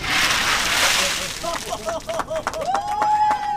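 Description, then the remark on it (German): Ice-cold water from two champagne coolers is poured over Donald Trump's head in a loud, rushing splash lasting about a second, followed by gasping, wordless exclamations and a rising yelp from the drenched person. “So klingt es, wenn sich Donald Trump zwei Sektkühler mit eiskaltem Wasser über den Kopf schütten lässt.”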